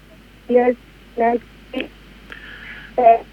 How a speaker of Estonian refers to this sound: proua, väga pahasti on teid kuulda, palun võtke äkki uuesti, äkki saate vähe parema levi peale.